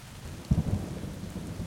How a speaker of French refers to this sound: Ils font une overdose de hummus et ils sont surpris parce qu'il pleut tout le temps.